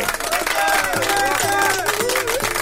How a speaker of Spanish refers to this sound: Un aplauso gigantesco para Ño Pampa y Caliche.